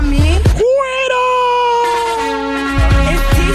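A loud, drawn-out shouted war cry, "¡Cuero!", rises sharply in pitch and is held for about two seconds, with brief bursts of voices before and after it.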